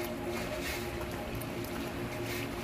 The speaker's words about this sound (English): I can hear the river. But the river is miles away. What we are hearing is not the Thames Wall, but the sound of the 20th century. It's the water running in your time down Huntercombe Lane from the melting of the snow.